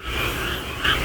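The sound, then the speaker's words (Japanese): A steady outdoor chorus of croaking frogs forming a continuous ambient bed, with one slightly louder burst of calling near the end. No one speaks. “カエルの鳴き声、環境音が、すごく、”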